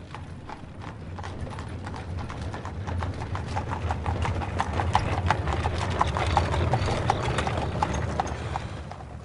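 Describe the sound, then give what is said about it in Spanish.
Steady clip-clop of a horse-drawn carriage's hooves as it pulls up at the door of a house in Silver Springs, a quick, even rhythm of sharp knocks running throughout over a low rumbling of wheels, with no one speaking. “Cuando el carricoche se detuvo ante la puerta de aquella casa de Silver Springs”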